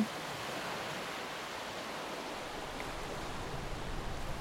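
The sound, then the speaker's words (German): A steady, broad rush of water pours continuously, loud, like a flood gushing in as the lower part of a ship fills with water, with a low rumble building slightly toward the end and no voices. “Ja, als erstes füllt sich übrigens der untere Teil des Schiffes mit Wasser.”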